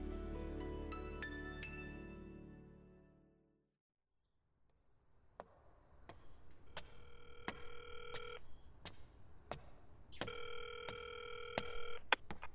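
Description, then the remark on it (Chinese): A telephone call to a busy line plays as two steady electronic beeps, each lasting over a second, separated by a short pause, with faint clicks between. A sustained humming tone fades to silence beforehand. “您所拨的电话正在通话中，请稍后再拨。”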